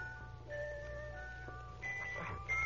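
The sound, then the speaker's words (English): The Kovrak jewel box plays a music-box melody: a thin, tinkling tune, with sustained high tones shifting from note to note over a steady low hum. No one speaks. “What music? What was it? The jewel box.”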